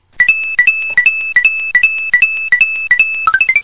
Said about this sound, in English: And that's literally what they sounded like. You know, like a dime, dun dun da-dun, dun you know, the little gold coins in Mario. Yeah, that's exactly what that was.